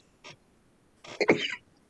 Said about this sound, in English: It was a smooth hit. uh, don't worry, I cough every episode. Sorry. Because I got baby lungs.